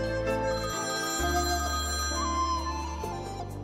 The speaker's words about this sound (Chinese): 唉，让我听到电话铃声都会感到很害怕